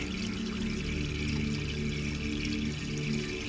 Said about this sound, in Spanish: Porque el ruido del agua llenando la bañera se escapa desde adentro.